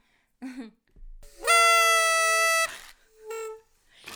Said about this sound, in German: ja, die ist schon ein bisschen eingerostet. Die wollte nicht so. Ja, die ähm, hat einfach, wurde zu lange nicht mehr getrötet von uns.